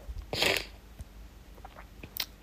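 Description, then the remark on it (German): A loud, breathy burst of nose blowing lasting about a quarter second, followed by faint clicks and a second, shorter snuffling blast; no one speaks. “Jetzt habe ich fast den Faden verloren, weil ich jetzt schneuzen muss.”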